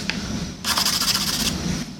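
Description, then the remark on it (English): A drawing tool scrapes across a surface in a rough, raspy stroke, a brief scratch followed by a sustained, grainy scraping burst lasting under a second, then quieter rubbing. No one speaks. “connect the mark of a pencil or a drawing tool with the sound of music, and so there's an acoustic quality to the surface that you're drawing on.”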